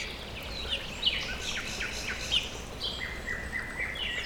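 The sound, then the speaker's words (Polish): Several birds chirp and twitter outdoors in spring, with bright, quick calls overlapping over a steady soft background hiss; no one speaks. “To jeszcze może chwileczkę posłuchajmy tej wiosny, która wybuchła nam prosto w twarz.”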